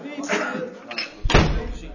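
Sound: door being shut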